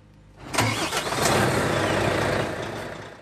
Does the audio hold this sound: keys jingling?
no